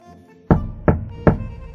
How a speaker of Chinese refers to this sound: 有人敲门，我从美梦中被吵醒了。